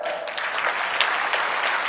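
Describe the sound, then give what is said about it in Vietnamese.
A crowd applauds steadily, many hands clapping into a dense, continuous patter that holds at an even, fairly loud level for the whole stretch, with no voices standing out. “Dành cho 8 tỷ tư một chàng vỗ tay ạ.”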